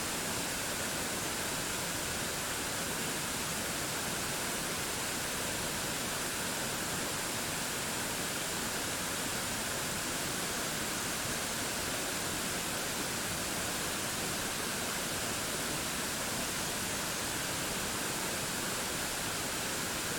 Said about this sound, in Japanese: 滝の音に集中しましょう